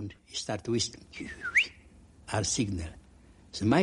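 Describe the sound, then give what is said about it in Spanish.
A short rising whistle cuts through for a moment, a quick upward-sliding signal note whistled by a boy at the train wagons in Auschwitz, surrounded by people speaking. “Le pareció ver piernas de mujeres, así que empezó a silbar.”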